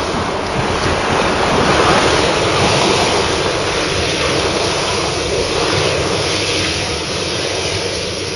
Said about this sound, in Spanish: En su camino, el barco El Valiente se enfrentó a olas gigantescas y vientos fuertes.